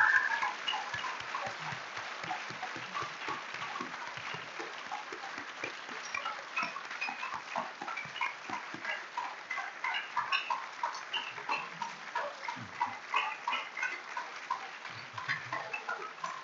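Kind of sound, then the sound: crowd, audience applause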